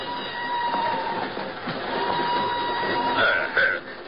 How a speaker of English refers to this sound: An hour later, she's aboard a northbound train rolling out of Lisbon. I'm in the same car, a few seats away.